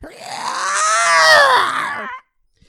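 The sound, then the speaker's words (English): A person voices a monster's pained scream: one loud, strained, gravelly cry that swells, wavers in pitch and holds for about two seconds before cutting off abruptly. “The monster gave off a scream of its own”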